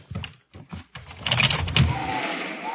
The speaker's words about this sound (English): Better open the window and clear the air in this room.